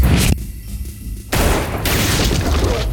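Loud gunshots fired into the air ring out: a sharp burst, a brief muffled lull, then a sustained, crackling volley of shots continuing to the end, with no voices.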